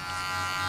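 A steady electric hair clipper buzzes without a break, a dense motorized hum with bright, sustained harmonic tones and no voices over it, as it cuts a man's hair at Kotoys Barbershop in central Sofia, Bulgaria.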